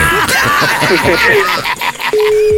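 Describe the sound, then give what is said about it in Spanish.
Several voices talk and laugh over each other, then a steady, clear telephone call tone begins near the end, sounding alone and unbroken as the line rings without an answer. “Yo creo que ya no nos va a contestar, compadre.”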